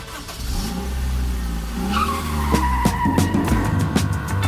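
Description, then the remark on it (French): A getaway car's tires skid and screech loudly while the engine revs and roars, the rising whine joined by a few sharp bursts over several seconds. “Ouverture dans la voiture”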